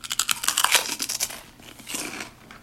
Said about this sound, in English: Is that a sound effect? We're hungry. Those uh, pork rinds, baby. They're eating pork rinds.